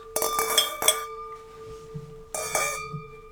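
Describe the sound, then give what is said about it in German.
Glasses of freshly poured wine clink together in a toast: a quick cluster of bright ringing taps, then a pause and another pair of clinks, each leaving a sustained high ring that fades. “Und er hat uns gerade ein bisschen Wein eingeschenkt.”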